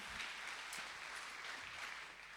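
A church audience applauds the couple who started the church, a dense, steady wash of many hands clapping at once with no pauses, loud and sustained throughout before easing slightly at the end.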